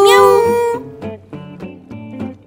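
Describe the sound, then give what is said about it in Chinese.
A voice imitates a cat meowing, starting with one long, loud, high-pitched meow, then a quicker run of four or five shorter meows in a bouncy, sing-song rhythm. “喵呜喵喵呜喵呜，喵喵喵喵呜，喵呜喵喵呜喵呜，喵喵喵。喵！”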